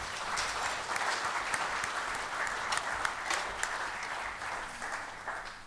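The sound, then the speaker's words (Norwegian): An audience applauds steadily for several seconds, a dense wash of many hands clapping at an even, moderate loudness with no voices standing out. “Jeg mener, gi den en applaus.”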